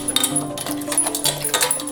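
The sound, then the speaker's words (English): A Labrador eats eagerly from a metal bowl, with quick, irregular clinks and crunches as food rattles against the dish, over a soft, steady musical tone. “Darcy the Labrador is seriously living in the moment.”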